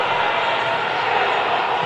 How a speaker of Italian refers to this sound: Proteste di tutto il palazzetto e della dirigenza. l'arbitro non cambia idea